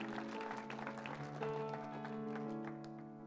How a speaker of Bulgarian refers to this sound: О, да, заслужава си да ръкопляскаш за това.